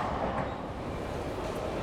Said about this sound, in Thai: เสียงประกาศบนรถไฟของฝรั่งเศสก็ดังขึ้นมาแทนที่ ซึ่งนั่นเป็นการบอกให้รู้ว่า เราต้องลงที่สถานีต่อไป เพื่อเดินทางไปยังสนามบิน เราลุกขึ้นเตรียมแบกกระเป๋าขึ้นหลัง แต่เดี๋ยวก่อน นี่มันขบวนรถไฟสุดท้ายในทริปนี้แล้วนี่